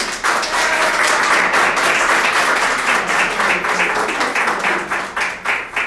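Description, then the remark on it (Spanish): Loud, steady applause from an audience of the SAP community, a dense crackle of many hands clapping that holds for about six seconds and starts to thin out with uneven claps near the end. No voices are heard. “Así que dense un fuerte aplauso.”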